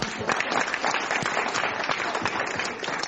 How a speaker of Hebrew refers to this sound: זה לא נראה לי פעם שמצריך כפיים, אבל מה שאתם רוצים.